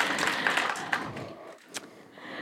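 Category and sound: crowd, audience clapping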